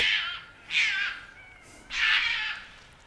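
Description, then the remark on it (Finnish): A roe deer barks three times at close range, each call a harsh, hoarse, raspy burst lasting under a second, with uneven pauses between them and no talking. “en esimerkiksi varmaan koskaan enää kuule näin hienoa metsäkauria näitä näin läheltä”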